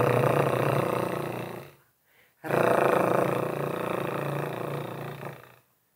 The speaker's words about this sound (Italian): Come dice la parola stessa, eh, consiste nel far trillare la lingua pronunciando una R, anche in questo caso pronunciandola per alcuni secondi, esattamente come l'esercizio precedente. In questo modo.